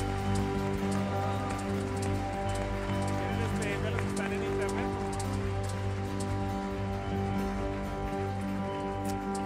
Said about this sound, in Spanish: Dele un aplauso fuerte a nuestro Dios. Wow.